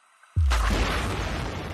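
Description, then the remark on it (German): A single deep, powerful blast from a seismic survey airgun erupts suddenly after a brief quiet, its low boom rolling on and slowly fading through a long rumbling tail, with no voices present. “Ähm, und das geht auch tatsächlich dann ein Knall alle 8 bis 15 Sekunden.”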